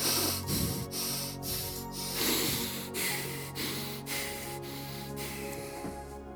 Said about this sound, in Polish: A teraz, tak yy, dla przeciwwagi, zacznijmy oddychać szybko i szaleńczo, tak.